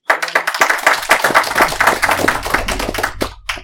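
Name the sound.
people clapping hands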